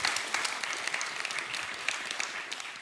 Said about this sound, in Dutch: ja, applaus eigenlijk wel.